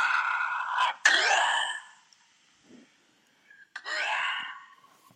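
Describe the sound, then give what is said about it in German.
A voice imitates the heavy, mechanical respirator breathing of Darth Vader from Star Wars: a long, raspy hissing inhale and exhale, a brief quiet pause, then another loud, wheezing breath. “Es ist wie bei Krieg der Sterne, aber wie der atmet und alles.”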